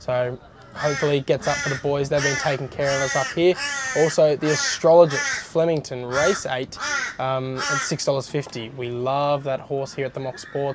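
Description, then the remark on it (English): A crow caws repeatedly in the background, fairly loud, while a man talks continuously over it. “Sorry if you can hear that crow in the background.”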